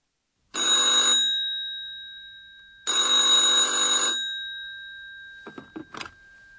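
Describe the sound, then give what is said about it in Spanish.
A telephone rings twice in loud, buzzy bursts with a pause between, followed by a few clicks and clatter as the handset is picked up. “Escuchen ahora el diálogo telefónico entre ambos”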